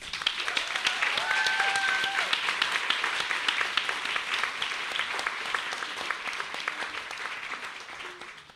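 An audience breaks into steady applause, a dense patter of many hands clapping at an even level for several seconds before tapering off at the end.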